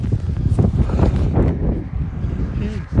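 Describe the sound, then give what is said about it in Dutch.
Steady wind buffets the microphone with a loud, continuous low rumble throughout, with muffled voices faintly audible beneath the gusts. “kieken we, al die eh, wind.”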